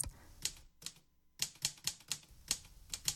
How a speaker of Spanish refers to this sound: El novelista, en mangas de camisa, metió en la máquina de escribir una hoja de papel, la numeró y se dispuso a relatar un abordaje de piratas.